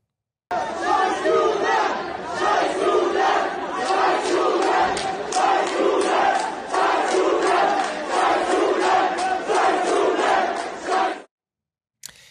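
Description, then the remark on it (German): A large crowd cheers, shouts and dances in the street in Germany for about ten seconds, a loud, dense roar with rhythmic surges like chanting or clapping, then it cuts off abruptly. “In Deutschland tanzen und feiern die Verbündeten der Mörder auf den Straßen und bejubeln den hundertfachen Mord an jüdischen Zivilisten.”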